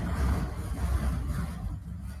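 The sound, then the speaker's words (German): A garbage truck's engine rumbles steadily outside in Berlin, a deep continuous drone with some rattling texture, moderately loud and heard alone without any talking. “Ja, die Müllabfuhr ist auch schon wieder da.”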